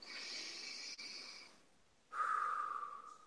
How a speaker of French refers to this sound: Alors on va dire ensemble déjà pour cette étape-là, on va faire une respiration.